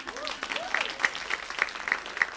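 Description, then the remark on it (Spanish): An audience applauds steadily in applause for the Lord, a dense wash of many hands clapping with a few sharper claps standing out, sustained at moderate loudness with no talking over it. “Un aplauso, un aplauso para el Señor.”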